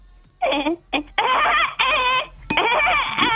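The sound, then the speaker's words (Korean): A woodpecker gives a run of loud, harsh, nasal calls: a couple of short bursts, then three longer wavering squawks with brief gaps, heard alone without any talking. “자, 정답은 딱따구리였습니다.”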